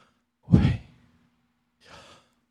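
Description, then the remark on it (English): A voice lets out a strong, breathy exhale like a sigh, followed after a pause by a second, softer breath, imitating the pronunciation of the Hebrew name YHWH (Jehovah) with air alone. “It sounds like a breath.”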